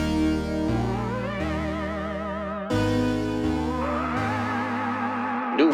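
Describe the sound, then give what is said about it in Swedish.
A song intro of loud, sustained synth-like tones that waver and shimmer with echoing effects over a stepping bass line, rising toward the end, with no voices. “Eh, jag ska inte snacka på en gång utan vi kör igång med en låt som eh, inte helt oväntat låter så här.”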